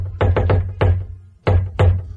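Loud knocks on a door: a quick burst of three, a single rap, then two more after a short pause, heavy and resonant with no voices.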